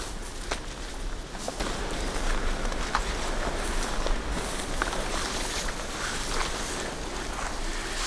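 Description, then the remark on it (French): Steady rustling and swishing of dense ferns, about 1 to 1.3 metres tall, brushed aside while walking through fern-invaded pastures above a forest edge, with irregular footstep crunches and a constant low wind rumble; fairly loud, no talking. “Le vent, les fougères,”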